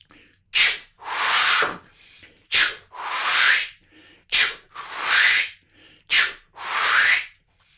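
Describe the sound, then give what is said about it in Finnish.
A bird-call instrument imitating a black grouse, giving four evenly spaced hissing calls, each a short breathy puff followed by a longer rasping whoosh, with no talking. “Sitten teeri.”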